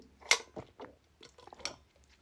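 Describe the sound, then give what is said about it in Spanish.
Someone takes a sip of water: a handful of short, wet mouth and swallowing sounds in an uneven rhythm, fairly quiet, with no talking. “Es que hablo tanto que se me va tanto el aire como el agua.”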